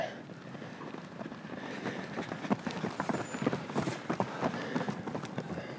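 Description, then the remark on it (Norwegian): A group of running club runners passes by, their many footsteps slapping the ground in a quick, overlapping patter that grows louder midway, with faint outdoor background noise. “Kommer gutta til passering igjen.”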